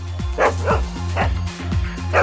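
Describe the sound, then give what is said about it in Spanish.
Two female dogs bark in a quick, repeated series of sharp, loud woofs, with a few higher yips mixed in over a steady low hum. “Y esos son mis perros.”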